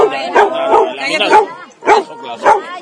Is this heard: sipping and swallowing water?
no